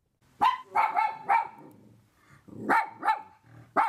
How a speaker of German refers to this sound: dann entgeht das der kleinen weißen Hündin nie. Dann bellt sie und tut rasend.